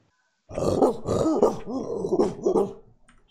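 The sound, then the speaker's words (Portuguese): A man's voice imitates a dog barking, a rapid string of gruff, throaty barks lasting a couple of seconds, loud with no other talking. “Pô, você mandou bem no latido, cara.”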